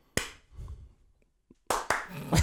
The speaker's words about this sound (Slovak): Dobre, čiže raz, dva, tri, keď poviem, tak tleskneme všetci. Raz, dva, tri.